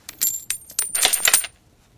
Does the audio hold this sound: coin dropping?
yes